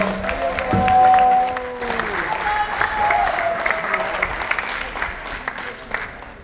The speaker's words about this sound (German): Super Applaus.